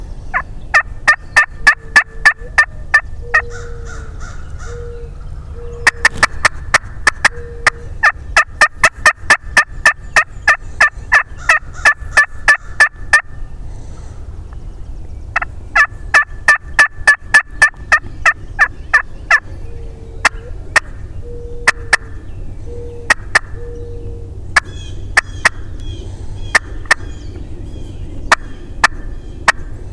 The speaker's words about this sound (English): So, okay. here's a little bit of the audio from birds gobbling on the neighbor's property.